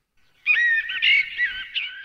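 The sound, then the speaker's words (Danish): A bird whistles a continuous, warbling phrase of bright, high notes, clear, lasting about a second and a half with no voices around it, at the start of the Swedish national anthem Du gamla, du fria. “Ej, var det svensk at starte med sådan noget fuglefløjt også.”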